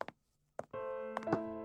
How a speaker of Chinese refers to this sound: 刘子豪看看时间，才终于鼓起勇气敲响了门。